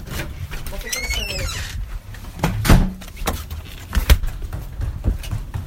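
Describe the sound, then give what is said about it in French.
A few sharp, separate knocks on a door, then the clunk and rattle of it being opened, recorded on a mobile phone, with birds chirping faintly early on and quiet voices in the background. “On n'aura même pas le toc-toc-toc sur l'enregistrement.”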